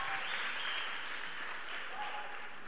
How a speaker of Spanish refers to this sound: Un aplauso